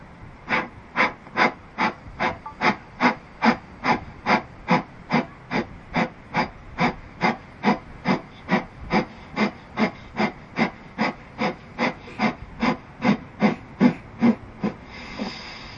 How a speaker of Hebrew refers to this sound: לוקחים שאיפה דרך האף, נושפים דרך האף נשיפות קצרות וקצובות. אנחנו עושים שלושה מחזורים כאלה. נסו להפעיל שרירים כדי לזרוק אוויר החוצה.